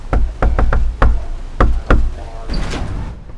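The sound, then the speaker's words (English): Firm knocking on a front door by Biden campaign workers going door to door on election day in Homestead, Miami-Dade County, Florida: a quick run of four raps, then a few slower, spaced knocks, followed by a brief muffled shuffle. No one speaks. “On election day, Biden campaign workers went door to door in Homestead and other Miami Dade County communities.”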